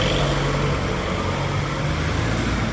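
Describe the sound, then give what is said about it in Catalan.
A car passes by, its engine a steady, loud drone with deep low hum and broad road noise throughout, no voices present. “Ui, un moment, que passa un cotxe.”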